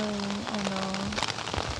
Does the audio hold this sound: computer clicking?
no